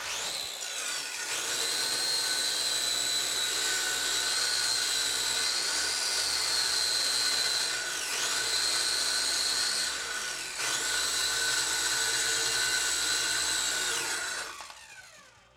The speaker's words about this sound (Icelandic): Strákar, hættum þessu ruggli. Hlustum á smá sögunarhljóð. Þetta er nýji bóman 800.